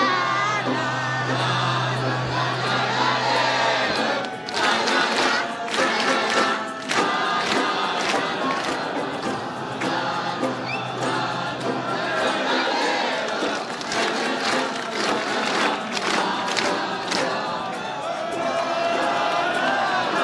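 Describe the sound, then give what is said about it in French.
A large crowd chants the ban bourguignon together loudly while bursts of rhythmic clapping break in at intervals, rising into a sustained, boisterous collective roar across the whole stretch. “On suit … qui va lancer le bambourguignon.”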